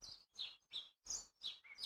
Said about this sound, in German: Ja, ich sitze ich sitze gerade hier, die Vögel zwitschern, die Sonne scheint. Ähm, ich bin inmitten der Natur.